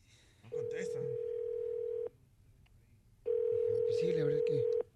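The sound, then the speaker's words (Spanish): Two long, steady ringback tones from a phone call placed to a young man's mother, each about one and a half seconds, separated by a pause, with faint chatter and background noise underneath. “aquí está enfrente de mí él y le estamos llamando ahorita a su mami hermosa para platicar con ella”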